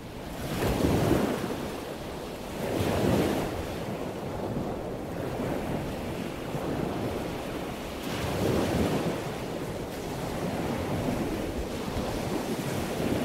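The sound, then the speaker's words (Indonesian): Sea waves surge and wash in repeated swells, around every two to three seconds, with steady gusting wind roaring underneath; no voices, just continuous rough open-water noise. “kapal Jalba yang ditumpangi Ibnu Batuta terumbang ambing oleh gelombang laut”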